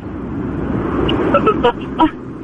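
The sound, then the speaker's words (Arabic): Steady, low rushing wind and road rumble inside a moving car, heard over a phone line from a caller who is driving and talking through Bluetooth. The sound is fairly loud and continuous throughout, with a few brief voice-like sounds in the second half. “ماسكه خط صوت هواء”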